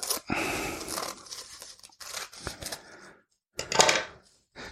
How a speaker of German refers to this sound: Und das kann man ganz normal mit der Küchenschere, vorausgesetzt natürlich, die ist schön sauber. Einfach so wie Papier in der Mitte durchschneiden.